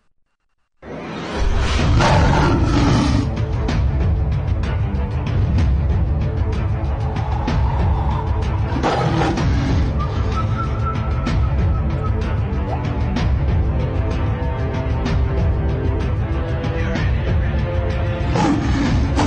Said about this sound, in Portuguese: o áudio do vídeo das hienas e do leão